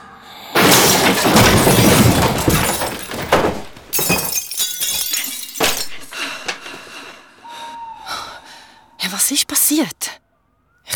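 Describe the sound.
A loud crash of a father stumbling into a nightstand, with breaking and clinking glass followed by scattered knocks and rattles as things settle, then a brief voice near the end.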